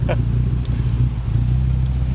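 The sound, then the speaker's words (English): A modified Dodge Viper V10 engine runs at a steady, loud idle, its deep throbbing rumble holding constant throughout, with a brief faint voice near the start. “That V10 has a unique tone all by itself.”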